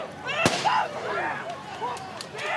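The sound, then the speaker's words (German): A single sharp firecracker bang cracks out, thrown toward police at a street protest by Lafayette Park in front of the White House, followed by a crowd shouting and yelling in the background. “Es fliegen Böller und Wasserflaschen in Richtung Polizei”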